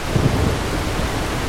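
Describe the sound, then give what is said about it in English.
A steady, loud roar of a storm at sea with heavy rain, and a brief low thunder rumble swelling near the start before settling back into the constant wash. No one speaks. “A voyaging ship was wrecked during a storm at sea.”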